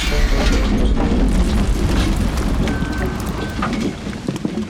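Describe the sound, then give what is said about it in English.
A truckload of about 100 million donuts is dumped out of a backed-up truck in a loud, continuous rumbling cascade, dense, with deep thuds underneath that ease off slightly toward the end. “All right, dump the donuts.”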